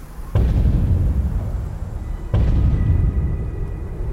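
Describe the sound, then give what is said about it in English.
Two enormous thunderous footsteps crash down about two seconds apart, each a loud, deep boom trailing into a long rumbling tail that fills the gap before the next impact. “One footstep crashed down after the next, like God ascending a massive flight of steps leading up from oblivion.”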